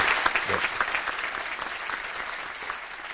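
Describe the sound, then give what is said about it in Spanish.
A steady burst of audience applause for a colonel at a live event, many hands clapping in a dense, crackling wash that holds fairly even for a few seconds, then eases slightly toward the end. “Yo creo que mi coronel se merece un aplauso porque estamos en directo y todo el mundo debe reconocer la labor de”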